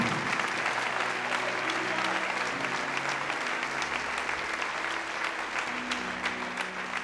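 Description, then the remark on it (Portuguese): A church audience applauds the Lord steadily for several seconds, a dense, sustained wash of clapping with faint voices and low tones murmuring underneath. “Pode aplaudir o Senhor.”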